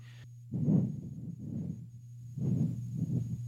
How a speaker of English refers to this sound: Oh, I love the I love to hear those beautiful pages turning in your Bibles to Mark 10